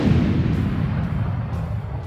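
A deep, muffled rumble rolls on steadily, a distant explosion reverberating through the corridors of a base, heavy in the low end and dull rather than sharp, with no voices.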